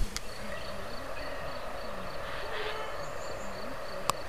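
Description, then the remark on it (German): A steady, continuous rush of flowing brook water near Schmidtburg, recorded on a handheld voice recorder, fills the scene at moderate level, with faint high chirping and a sharp click near the end. “Könnt, könnt ihr den Bach hören?”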